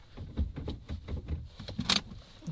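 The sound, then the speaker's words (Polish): Jingle of a keyring as a car key is turned in the ignition to try to start the car, with a string of small clicks and rattles and one sharper click near the end, no talking. “Dobra, słuchajcie, spróbuję odpalić samochód w takim razie.”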